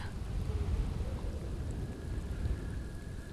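Steady rain pours down with wind in a continuous wash of hiss, backed by a deep low rumble. The downpour holds at an even level throughout, with no voices.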